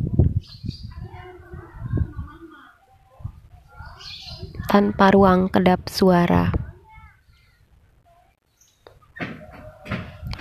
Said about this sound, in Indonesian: mohon maaf saya merekam ini dari atas dak rumah di mana ada suara burung suara kresek-kresek anak saya yang bermain di sebelah saya suara motor yang lewat suara tetangga yang ngobrol, suara anak-anak kecil yang bermain.